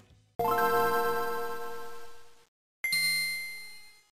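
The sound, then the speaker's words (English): A Nintendo Game Boy startup chime played when a game starts: two bright electronic tones, the first ringing out for about two seconds, then a higher second note that fades away, clear and alone with no voices. “he'd always talk about uh, video games and this kind of video games the startup sound like the Game Boy,”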